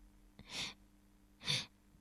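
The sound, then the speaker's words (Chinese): Two breathy sniffing inhales, evenly spaced about a second apart, each a short hissing draw of air at moderate volume with no talking around them. “他停了下来，这时声音又响起来了，那是一种吸气的声音。”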